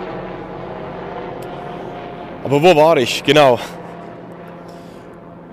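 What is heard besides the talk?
helicopter flying overhead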